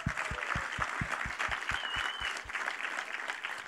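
An audience applauds steadily, a dense wash of many hands clapping at once, with a few sharper, louder claps standing out in a roughly even beat through the applause.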